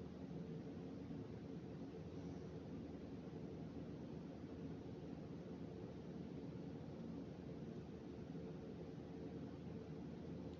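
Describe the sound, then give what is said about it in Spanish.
A steady, unchanging refrigerator hum drones on for the whole stretch, a low electrical buzz layered with soft airy noise, moderately quiet, with no voices or other sounds. “Yo he escogido el sonido de mi refrigerador.”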